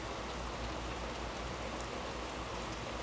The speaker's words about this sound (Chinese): 我的落地窗外面是阳台，阳台是木头造的吧，地板是木头的，围栏也是木头的。雨呢就会打在这个地板和栏杆上面，听着就很舒服。